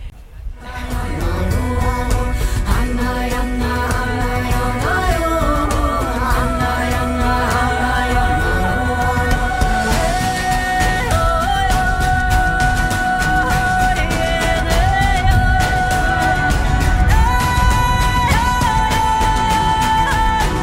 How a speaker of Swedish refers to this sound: För det här var jojk. Vad jojkade du här? Ja, det här är ju helt fantastiskt att du tog just den här snutten, för det är ju inte jag.